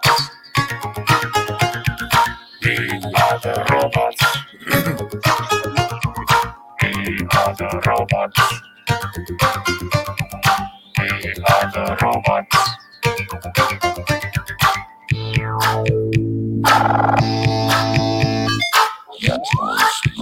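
Electronic synth-pop music plays loudly and steadily, with choppy rhythmic synth patterns and brief gaps, then a long sustained synth chord near the end before the beat returns. No one speaks.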